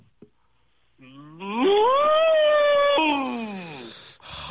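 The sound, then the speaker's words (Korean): A phone caller in a radio sound-imitation contest imitates a Hanwoo (Korean cattle) moo: one long, loud, harmonic call that rises in pitch, holds steady, then slides downward, followed by a brief noisy breathy burst. “자 한우 다시 한번요.”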